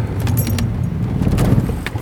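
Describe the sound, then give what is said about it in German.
A car engine stalls at a red traffic light, its low rumble running steadily with light rattling and clinking on top. No one speaks. “Jetzt habe ich das Auto abgewürgt.”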